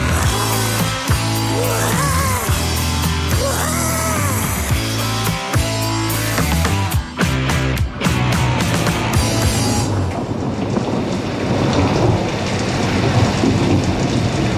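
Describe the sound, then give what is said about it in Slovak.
Music plays for the first half, then gives way to a steady, loud hiss of heavy rain with low rumbling thunder rolling underneath, continuing to the end without any voices. “Zaujímavá búrka, toto ale v tejto chvíli nehrozí.”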